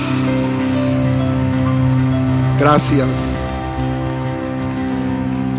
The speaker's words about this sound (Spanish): Un aplauso fuerte, grito de júbilo.